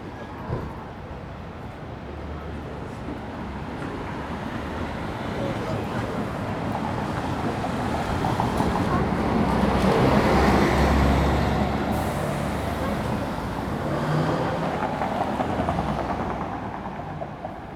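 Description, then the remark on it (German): A city street soundscape of steady traffic on Talierstraße: a continuous low engine rumble and road hiss, swelling as heavier vehicles pass midway and again near the end, then easing slightly. “war die Talierstraße, wo wir uns begegnet sind, die Talierstraße in einem von mir abgesteckten Gebiet in diesem Zeitraum eben näher belauscht, um über, die, über das Soundscape dieses Ortes mehr herauszufinden.”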